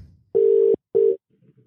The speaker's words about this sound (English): there was two Jimmys in the phone, so hopefully the right one I've dialed